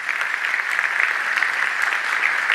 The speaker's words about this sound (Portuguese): Você pode aplaudir bem forte ao Senhor.